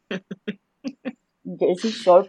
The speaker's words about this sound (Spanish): Y con un fondo de... De, playa, y gaviotas. Y gaviotas.